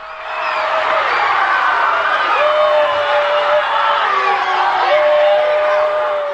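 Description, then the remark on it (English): A large crowd in a gym boos steadily after a foul is called, a dense roar of many voices with drawn-out low vocal tones rising and falling, sustained and loud for the whole stretch with no single voice standing out. “The mood in the gym got worse. There was booing.”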